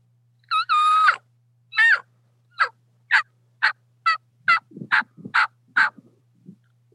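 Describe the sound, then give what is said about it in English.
A series of about ten raspy turkey yelps made on a diaphragm mouth call, evenly spaced, starting with a drawn-out note then settling into a steady rhythmic run with a faint low hum beneath. “If you can get that beginning, that beginning just that, and then what you want to do is drop your jaw to create that yell.”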